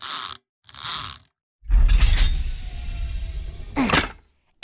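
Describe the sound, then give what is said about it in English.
Two short mechanical clicks, a brief pause, then a loud, sustained ratcheting whir and clatter of a mechanical front leg being detached, ending in a sharp release. Clear, with no talking. “and front leg detached.”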